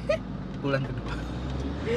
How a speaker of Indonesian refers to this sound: kok ini suara truk nih masuk nih itu lihat truk sampah debu banget